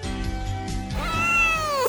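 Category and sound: animal, cat meowing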